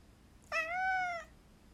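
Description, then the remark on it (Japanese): A single drawn-out meow from the cat Mafu, clear and fairly high-pitched, lasting under a second with a slight rise and fall in tone, heard alone against quiet background. “こんばんはマフちゃんうんマフが泣いております久々よね”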